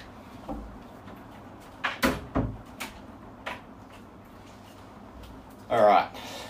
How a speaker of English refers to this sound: Sorry, I got to close that door. It's annoying.